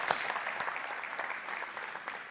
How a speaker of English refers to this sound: Would you please give my man Kelly a round of applause for being our guinea pig?